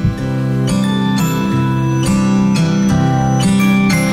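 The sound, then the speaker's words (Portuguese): A song's opening bars play on the radio, loud and steady: sustained low chords with bright struck accents landing at a regular, unhurried beat, and no voices. “Vamos ouvir ela então, então agora ah, aumenta ah, o som do rádio, bota o fone de ouvido”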